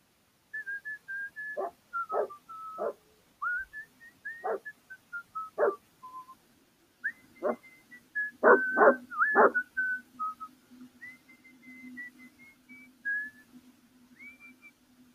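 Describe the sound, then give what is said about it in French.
A dog whimpers in high, drawn-out whines, broken by a series of short, sharp barks, some in quick clusters, with a low steady hum underneath and no talking. “Mais non, il est très gentil, ce chien-là.”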